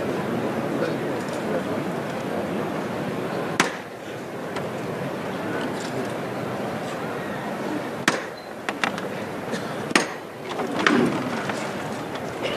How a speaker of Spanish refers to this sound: Tres toques de martillo. El esfuerzo de los costaleros es la levantada.